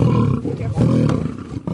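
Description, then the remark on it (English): A lion roars loudly in a deep, rumbling, sustained bellow that briefly dips and surges again, with a rough, throaty growl running through it and no voices. “Lions that had been malnourished now get to feast on whole chickens.”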